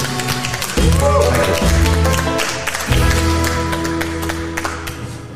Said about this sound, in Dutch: Mag een hartelijk applaus, eh, jongens, voor Michiel eh, van de Pol.